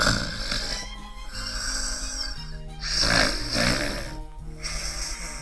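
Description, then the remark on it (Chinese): Loud, rasping snores of John, the castle cleaner in a story, that keep the king, queen, princess and dog awake all night; they repeat in a slow steady rhythm, about four rumbling breaths with a noisy, wheezy edge. No one speaks. “就算约翰的呼噜声吵得他们整晚整晚的睡不好觉，大家也不介意。”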